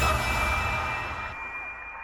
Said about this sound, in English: Did I hear an air horn from Steve Galindo's yeah, truck right there?